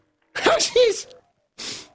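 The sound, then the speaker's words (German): A person mimics a sneeze with a voiced, rising "ah-" buildup followed by a loud burst, then a short breathy noise after a brief pause, fairly loud. “mir fällt nichts Besseres ein, als äh, Niesen zu imitieren.”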